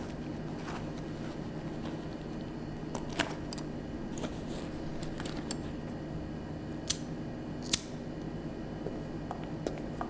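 Several sharp metallic clicks of a lighter being flicked repeatedly in the dark near a hotel kitchen to make light, spaced irregularly over a low steady hum, with two crisper snaps standing out near the end.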